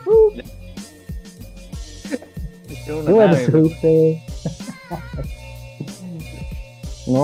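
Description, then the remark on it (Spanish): A person hums a low, wavering drone for a second or two, imitating the constant engine noise of a bus, with casual conversation before and after. “Lo único que se escuchaba ese era el ruido del, del motor del bus.”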